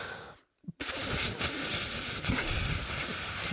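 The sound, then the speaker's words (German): A voice imitates a fog machine at a village disco: after a brief breath and a short gap, a sustained, airy hiss rises and holds steadily for about three seconds, bright and fairly loud. “ja, und dann kommt halt noch so eine Nebelmaschine, die dann noch so”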